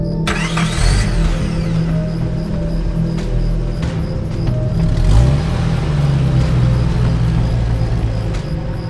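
A car engine runs steadily throughout, a low rumbling hum with a rise in pitch around the middle as it revs slightly, plus a few faint mechanical clicks and no voices.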